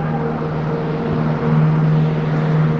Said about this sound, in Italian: Cosa ci fa l'autobus numero 15 in questa via? Sarà qualche deviazione?